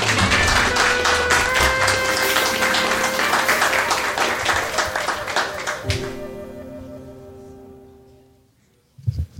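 Dense applause from a crowd for guests who were on stage, a steady wash of many hands clapping, with tonal sustained notes underneath; the clapping fades toward the end, leaving a held tone before a brief burst of noise.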